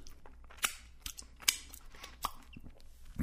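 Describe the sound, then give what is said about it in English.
Quiet wet smacking and sucking noises, with a few sharp clicks spaced unevenly, as someone at home sucks their fingers after eating a bagged snack with their right hand, with no talking. “And because I'm home, I'll suck my fingers.”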